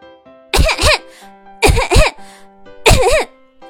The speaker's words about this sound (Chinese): 这不，啪嗒一声，卷成卷的毯子从高高的储物柜上掉了下来，扬起一阵灰尘。把刚好路过的板凳小六呛得直咳嗽。